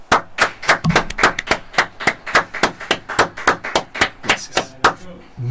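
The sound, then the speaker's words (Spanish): Steady, rhythmic applause from a small group sending off a departing guest on a radio program, about twenty sharp claps in quick even succession, fairly loud, with faint voices underneath near the end. “Bien, lo despedimos como lo recibimos con un aplauso.”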